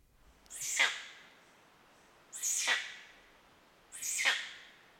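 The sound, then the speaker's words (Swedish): A tree hyrax gives three harsh, strangled thwacking calls, each a loud raspy downward sweep, spaced about one and a half seconds apart against a quiet background. “Jag tänker att jag kan lägga in ett ljud här senare på hur trädhyraxen låter.”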